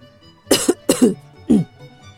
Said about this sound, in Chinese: 爸爸清了清嗓子